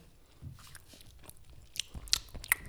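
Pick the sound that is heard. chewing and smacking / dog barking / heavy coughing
chewing and smacking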